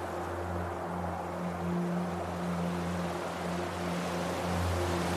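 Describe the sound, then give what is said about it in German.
Gentle waves lap against a boat rocking softly on the surface of the endless ocean shortly before sunrise, in a steady, continuous wash, with a low, even hum running underneath and no voices. “Umgeben von dem endlosen Ozean wiegt unser Boot sanft auf der Wasseroberfläche hin und her.”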